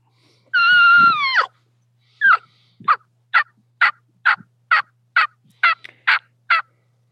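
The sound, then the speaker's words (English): A turkey call, yelping and cutting: one drawn-out, wavering high note, then about ten short, sharp clucks in a quick, steady rhythm, fairly loud and with no talking. “So when you're dropping your jaw, it's creating that rollover, that cow, cow.”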